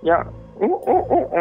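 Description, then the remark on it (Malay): A person imitates a macaque-like sound with a quick series of four rising, hooting vocal bursts, fairly loud, right after a brief spoken word. “Dan pukul 3 lebih macam tu dengar bunyi macam memutar tak bunyi yang macam beruk yang”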